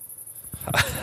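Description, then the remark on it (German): In a garden in summer, a high, steady pulsing chirp of a cricket runs throughout, with a louder, sharper yelping or scraping sound bursting in near the end and briefly covering it. “Übrigens, hier ist eine Grille. Das war der, hört ihr das?”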